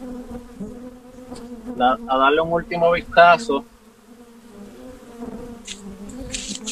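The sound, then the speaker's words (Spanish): A steady drone of many honeybees buzzes around an open Langstroth-type hive box throughout, with a person talking briefly over the humming swarm in the middle. “Esta es la caja tipo Langstro, la colmena Langstro.”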